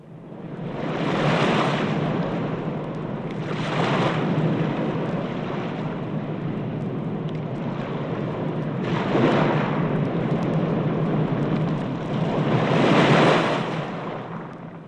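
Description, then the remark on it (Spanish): The rough, stormy Caribbean Sea of the Antilles roars steadily, with heavy waves surging and crashing every few seconds and a deep, rumbling undertone like thunder, as storms batter Columbus's four caravels in 1502. No voices are heard. “Llevaba Colón una escuadrilla de cuatro inseguras carabelas combatidas por las tempestades.”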